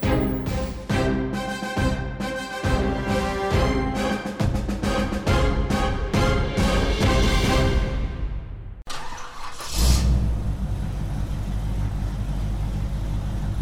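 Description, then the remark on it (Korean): A combustion-engine car's engine sputters and revs in a rapid, rhythmic pattern, then a loud whoosh as the car passes by spewing acrid exhaust fumes, followed by a steady, rumbling engine roar. No one speaks. “이 소리는 기후 위기를 심화시키는 내연기관차가 매캐한 매연을 뿜으며 지나가는 소리입니다.”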